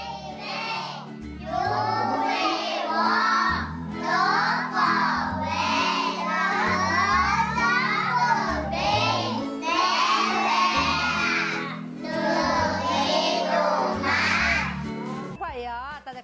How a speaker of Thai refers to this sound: ไปฟังเสียงบรรยากาศการเรียนรู้ของน้องๆที่นี่กันนะคะ